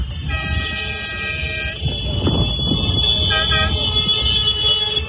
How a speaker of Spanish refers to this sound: Este es el sonido de una caravana de tractores que atraviesa un pueblo francés a un centenar de kilómetros de París. Su objetivo es llegar a la capital de Francia.